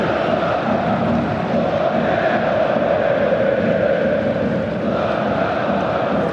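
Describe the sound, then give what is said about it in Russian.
A huge stadium crowd of Lokomotiv football fans chants one of their best-known chants in unison during a match, a dense, steady roar of massed voices that fills the whole stretch without pause, loud and reverberant. “Ну и свою, пожалуй, самую известную кричалку затянули болельщики.”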